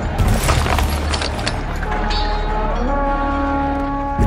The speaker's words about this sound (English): The horns, people screaming. Who's attacking us?